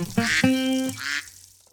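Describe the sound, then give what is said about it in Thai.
A duck quacks three times in quick succession, loud and nasal, with the last quack trailing off into quiet. No voices or other sounds accompany it. “เปลี่ยนเป็ดให้เป็นเปิด”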